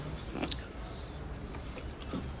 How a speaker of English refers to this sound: I'm sorry that I'm crunching. I'm sucking on a lozenge